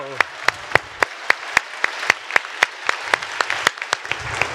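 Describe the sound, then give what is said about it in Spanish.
An audience applauds with a steady stream of claps, sharp individual hand claps popping out above a dense wash of clapping, with faint voices murmuring low underneath. “Sí, sí te merece un aplauso muy fuerte.”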